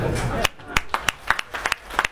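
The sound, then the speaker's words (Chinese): Audience applause in scattered form during a speech promoting Gree washing machines: roughly ten sharp, irregular handclaps ring out after a brief murmur of voice at the start, never building into a full, dense ovation. “鼓掌，我希望你把这掌声换成钞票啊，到网上采购啊。”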